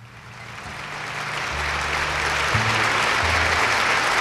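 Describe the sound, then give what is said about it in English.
A live jazz recording from 1964 at the Philharmonic plays. Low, steady bass notes step along beneath a dense wash of audience applause that swells and stays loud throughout. “This is live at the Philharmonic”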